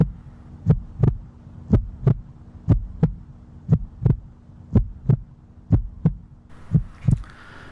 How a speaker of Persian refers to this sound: صدای قلبش رو میشنید اصلا ضربان قلبش داشت همه بدنش تکون میداد